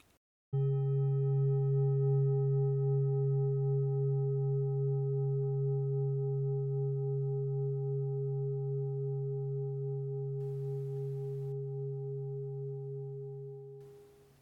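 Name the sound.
meditation gong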